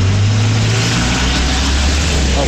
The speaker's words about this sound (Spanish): lo que es el para atrás, hay mucho tráfico, no sabes, a ver.